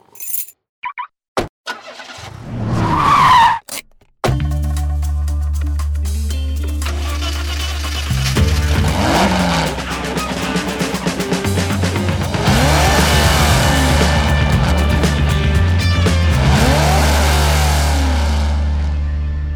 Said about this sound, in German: Thermoskanne habe ich, der W210 ist vollgetankt, einmal um den Block, Schwung holen und dann auf die Piste. 500 Kilometer, Marsch, Marsch.